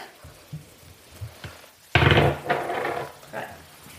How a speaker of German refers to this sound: Dann noch das dritte Mal würfeln, bitte.